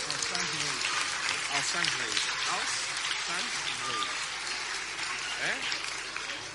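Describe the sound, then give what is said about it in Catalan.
A crowd claps steadily for the children of the Pilar school for the whole stretch, a dense, even patter of many hands at a loud level. Voices talk faintly underneath the clapping. “Sí, un altre aplaudiment, va, que s'animin molt.”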